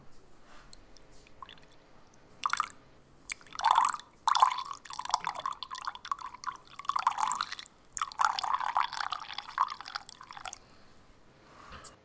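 A drink is poured into a glass, the liquid splashing and gurgling in several uneven bursts with short pauses between, and no one speaking.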